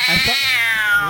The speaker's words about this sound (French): ça c'est un gros chat. Celui-là.